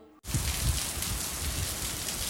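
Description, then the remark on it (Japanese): Steady rain pours down in a dense, continuous hiss, starting abruptly after a brief moment of quiet, with soft low patters of drops hitting a surface. “雨です雨ですあんなに毎日晴れてたのに急に雨です”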